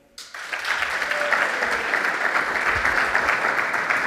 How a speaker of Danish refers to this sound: Og nu tager jeg lige en vejledende afstemning her på gymnasiet. Altså, hvor mange klapper for prompte?